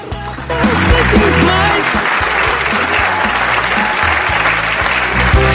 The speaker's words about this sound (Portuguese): Uma salva de palmas.